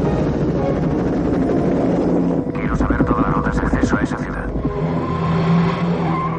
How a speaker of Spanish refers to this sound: El helicóptero sobrevuela el bosque junto al río.